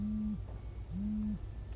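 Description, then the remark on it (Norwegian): A wake-up alarm sounds two low, steady hum-like tones, each lasting under half a second with a brief pause between them, fairly loud against a low rumble, with no one talking. “Nå ringer det en alarm her.”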